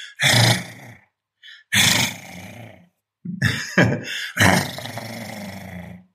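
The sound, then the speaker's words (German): A person imitates an angry growling dog in several loud, rough bursts with short pauses between them, the snarls throaty, with no talking. “So, und jetzt knurre ich. Ich kann nämlich sehr überzeugen, wie ein Hund knurren.”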